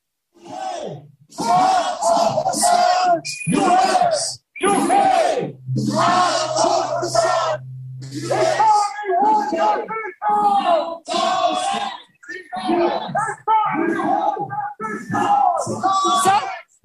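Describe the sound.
A crowd of protesters shouts loudly and continuously, voices rising in repeated rhythmic bursts like chanting, with a brief low droning tone partway through.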